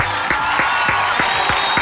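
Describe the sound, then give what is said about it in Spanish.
Steady applause for a guest being introduced, with distinct handclaps landing at an even, brisk rhythm over a wash of noise, moderately loud, with no talking. “Un aplauso para yo mismo.”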